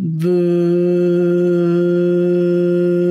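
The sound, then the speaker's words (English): A single low, steady hummed voice tone, a deep sustained "voo" sounded from the belly, held evenly for about three seconds, fairly loud with rich buzzing overtones. “I usually like to put a hand on my chest and stomach, imagining the vibration in your stomach and making a sound like this.”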